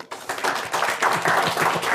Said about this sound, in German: Also insofern können wir auch alle mal einen Applaus nochmal geben, dass ihr euch das die Mühe gemacht habt und ähm, diesen Preis einmalig hier auszuschreiben für dieses Jahr.